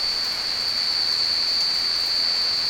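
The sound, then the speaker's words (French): Heavy rain pours down in the evening in a steady, unbroken hiss that stays loud and even throughout, with no voices, just the dense wash of falling water. “Eh ben, il pleut bien.”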